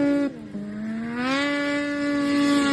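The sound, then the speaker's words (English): A racing snowmobile engine in the Masters 50 class, on a lake by Fosston, gives a loud, steady, buzzing whine that dips briefly in pitch, then climbs and holds high as it accelerates. No one speaks. “Ah, I gotta love the sound of that.”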